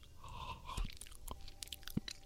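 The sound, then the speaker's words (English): Open-mouthed chewing: moist smacks and crunchy clicks arrive at an irregular pace, fairly quiet, with no one speaking. “If you're listening to us right now, you don't care about the sound of the chewing.”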